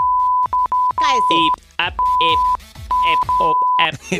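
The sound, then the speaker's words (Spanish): A steady mid-pitched censorship bleep cuts in and out repeatedly, in short blips and longer held tones, in an uneven Morse-like pattern over a man's speech. “like Morse code.”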